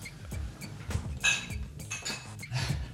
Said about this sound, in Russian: Ой. За путешествие. Звон бокалов за путешествие.